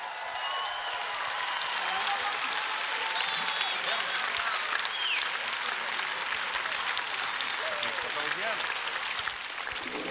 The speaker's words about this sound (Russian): И теперь бурная овация, потому что это финальная, завершающая прекрасная песня.